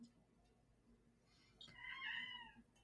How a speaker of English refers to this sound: Meow. What's up, mom? I was about to say I heard a cat.